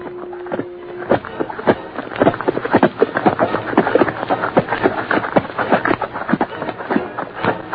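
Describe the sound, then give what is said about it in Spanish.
Several horses of a ranchers' caravan walk slowly and steadily across a creek, their hooves clip-clopping in a dense, overlapping rhythm, with a brief low tone near the start. “La caravana de rancheros cruzó el arroyo y siguió su camino lentamente”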